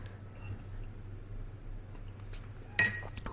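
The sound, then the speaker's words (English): A coffee mug clinks once as someone drinks coffee, a short bright ceramic chink near the end, with a few faint knocks around it over a steady low hum and no talking. “I'm drinking a coffee and it's like.”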